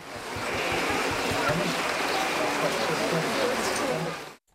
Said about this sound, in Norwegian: Så fra vår vei ned fra slottet får du som lytter nøye deg med litt ekte kurdisk vind. Og litt ekte kurdisk regn.